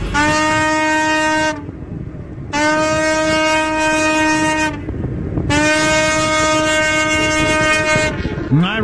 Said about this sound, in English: That's the horn of a boat that has been unstuck. The giant ship in the Suez Canal has been refloated after a series of pulling events.